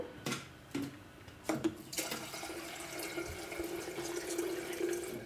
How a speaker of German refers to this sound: Das also ist ein Wasserkocher. Macht der auch Geräusche? Ja, glaub schon. Das ist ein elektrischer Wasserkocher. Tun wir mal Wasser rein.